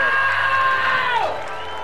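A crowd cheers and applauds as Argentina's Santiago Lange and Cecilia Carranza receive the gold medal in mixed sailing, in a loud, sustained roar of voices, with one pitched shout sliding downward near the end as the noise eases slightly.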